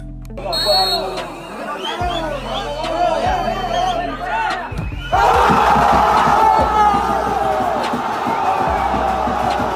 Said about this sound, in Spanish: bueno, con, este ánimo de, la gente alentando al central, vamos a dar paso a, un poquito al análisis del Villafranco Central.